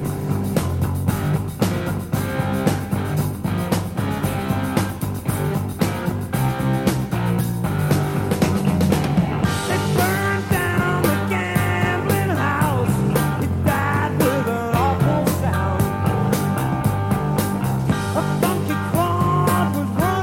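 A 1972 English hard rock recording plays loud and steady: a full band with driving drums and thick, sustained guitar and bass, with a melodic line rising over the mix partway through.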